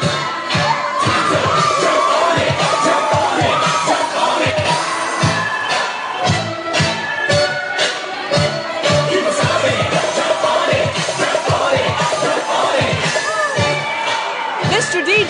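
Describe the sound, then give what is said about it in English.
A loud, lively crowd cheers and shouts nonstop on the dance floor right next to the DJ at Night to Shine at West Ark Church of Christ in Fort Smith, Arkansas, with scattered whoops and excited voices layered over thumping dance music throughout, no pauses or quiet moments. “All right, we're right smack dab next to the DJ on the dance floor at Night to Shine, Fort Smith.”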